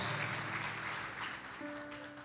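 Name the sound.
audience clapping hands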